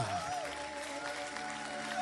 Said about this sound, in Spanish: Fuerte ese Si, viene, venga, pastor, venga. Fuerte aplausos aplauso de honra.